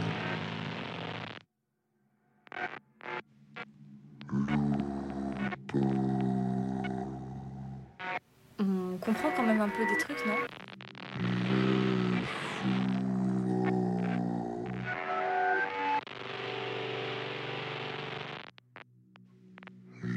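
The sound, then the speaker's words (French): A voice recording played in reverse at a setting of minus 200, its syllables swelling and cutting off abruptly, producing strange garbled speech-like sounds that resemble patois, with short silent gaps between bursts. “Alors, à l'envers, ce qu'on peut faire, c'est faire du moins 200.”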